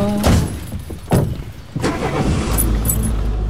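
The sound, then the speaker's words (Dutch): A car drives off on a trip to the Ardennes: a few sharp thuds are followed by a steady, low engine rumble that continues to the end, with no talking. “We gaan nu de auto nemen.”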